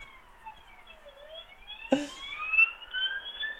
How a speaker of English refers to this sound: Oh, they're coming back around again by the sound of it. oh no, it's another police car chasing. That sounds like an ambulance. That was a police car.